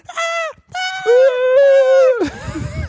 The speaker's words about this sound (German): rennt schreiend, ekstatisch mit den Armen nach oben über eine Bühne, ungefähr drei Minuten lang. Es ist körperlich unangenehm. Und aber äh, lustig. Äh, es, es, klingt auch geil, ne? Weil er schreit nicht einfach so, äh, sondern.